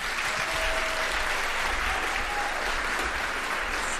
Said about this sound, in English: So they're all dying to give you a big round of applause, aren't they?